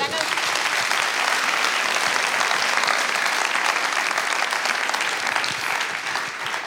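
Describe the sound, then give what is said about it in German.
Sustained applause from a large church audience, a dense, steady wash of many hands clapping at once, loud and even throughout with no pauses and no clear voices rising above it. “Das ist euer Applaus.”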